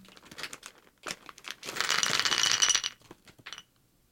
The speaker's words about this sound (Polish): I sprawdzimy, który dźwięk najbardziej Wam się spodoba jak wrzucamy draże do miseczki. Najpierw bierzemy miseczkę ceramiczną.